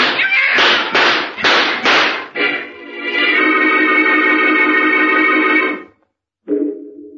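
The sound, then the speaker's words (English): About five gunshots ring out in quick succession, each with a booming tail, followed by a long, harsh, wailing tone that cuts off, then a short low tone. No one speaks. The gun is emptied at a great black cat. “I emptied the gun at her, Doctor.”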